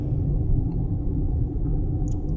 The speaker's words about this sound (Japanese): 今ね、放送しています。ま車の中で僕の場合は収録している